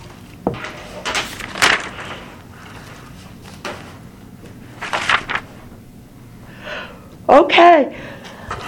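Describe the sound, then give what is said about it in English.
A person yawns, with breathy intakes and rustling noises building to a drawn-out, voiced yawn near the end, fairly loud. “I got the Saint Tina's down there yawning too.”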